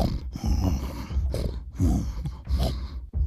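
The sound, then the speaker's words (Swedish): A person imitates a bear with deep, rumbling growls and snorts, several gruff bursts in a row with short breathy pauses between them, fairly loud. “Något, eh, låter som ett djur. Ja, tänker att det är den där jäkla björnen igen.”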